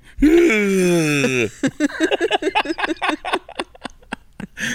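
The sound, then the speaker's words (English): A person lets out a long, loud, drawn-out yawn for over a second, voice sliding downward, and then goes straight into rapid talking. “I'm yawning like Glenn want. Beck.”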